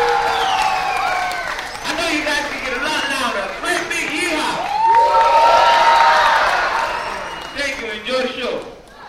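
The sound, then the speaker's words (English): A rowdy audience whoops, yeehaws, hollers and cheers over a steady wash of clapping and stomping before a show starts, loud throughout, with overlapping shouted voices rising and falling for several seconds. “So if I get you to clap your hands and stomp your feet and grape your yeehaw before the show starts?”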